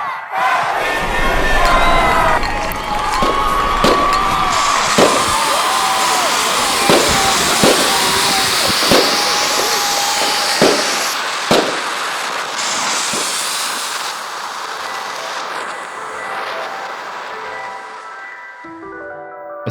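Sharp bangs and metallic pops of tear gas canisters burst at irregular intervals, loud, over a continuous roar of a shouting crowd of protesters in Hong Kong on New Year's Eve, as 2019 turned to 2020.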